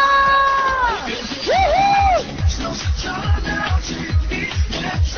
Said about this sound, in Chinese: 来吧，大家的尖叫声还想有没有？